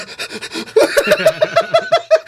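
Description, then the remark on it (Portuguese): A person doing a breathing exercise pants rapidly and rhythmically, imitating a dog, with quick voiced huffs repeating about every fraction of a second; fairly loud, no talking. “Parece aqueles cachorros.”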